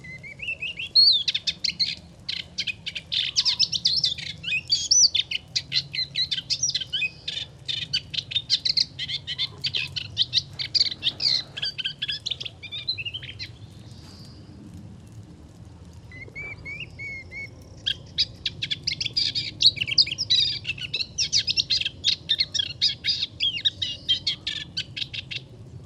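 A moustached warbler sings in long, rapid, scratchy chattering phrases, clear, pausing briefly midway before resuming, on a calm, windless morning, over a low steady rumble of distant agricultural machinery.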